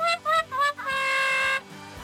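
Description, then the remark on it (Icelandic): A brassy, horn-like sound effect from a 16-sound effects device plays three short descending notes followed by one long drawn-out low note, the classic deflating 'fail' jingle used as a thumbs down after something unfunny is said, loud with no talking. “þetta er svona ef ég segi eitthvað sem er bara miður fyndið og þetta er thumbs down”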